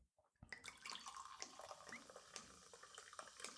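Water is poured into a glass, a steady splashing gurgle that starts after a brief quiet moment and runs for about three seconds, with no talking.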